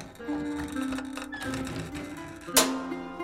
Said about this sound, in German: Nur wenige Setzer und Drucker werden Zeuge, als 1450 in Gutenbergs Werkstatt die erste Seite gedruckt wird.